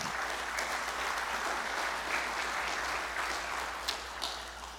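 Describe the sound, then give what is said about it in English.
An audience claps their hands together in a sustained, dense burst of applause during a morning service, steady and full throughout, with a few sharper claps standing out near the end. “you're a child of God, let me hear your hands this morning.”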